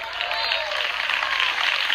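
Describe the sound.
A church audience breaks into steady, dense applause for the Christ of Glory, a continuous wash of many hands clapping at even loudness, with a few raised voices calling out underneath.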